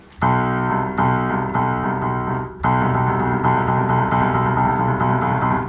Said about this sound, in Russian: Мы пришли в до-мажор, Вот вообще тоника вот это. Но Бетховен дает трель.